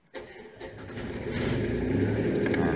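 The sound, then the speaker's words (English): A diesel generator, its diesel preheated for a few seconds first, cranks briefly and catches, its engine rising into a steady, loud, rumbling chug that settles into a continuous run. “Um, it's diesel, so you have to preheat the diesel just like with the diesel car and you leave it a few seconds to warm up and then start it up”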